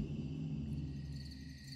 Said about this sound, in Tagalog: Tanging ang mga kuliglig lamang ang maririnig mong ingay sa paligid.